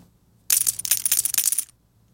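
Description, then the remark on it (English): Poker chips clink and rattle together in a bright flurry of rapid clicks lasting about a second, with no voices present. “Poker chips for all you gamblers out there.”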